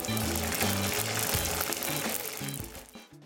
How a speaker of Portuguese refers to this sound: Só a pelinha você joga no fogo, ele cresce. É muito bom. O segredo para um bom torresmo em rolo, em tiras ou pururuquinha é uma boa panela de óleo fervendo.